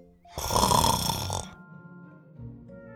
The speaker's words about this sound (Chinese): 然后他又进入到了梦乡，打起了呼噜。